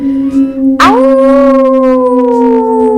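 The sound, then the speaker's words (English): A long, loud wolf howl for a wolf character called Big Wolf starts with a sharp rise in pitch, then holds a steady, slightly falling note for a couple of seconds over a low, constant hum. “这一只叫什么？Big Wolf。”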